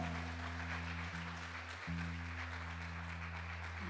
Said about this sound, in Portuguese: Dê uma salva de palmas a Jesus porque ele é bom.